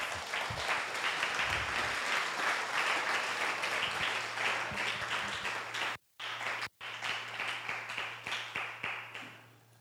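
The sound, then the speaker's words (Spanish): A church audience applauds the word of God steadily with dense, overlapping claps and a low steady hum underneath, briefly cut by two short gaps of near silence before the clapping resumes and gradually thins out. “Dele un aplauso a la palabra de Dios.”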